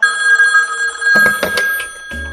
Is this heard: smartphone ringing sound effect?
yes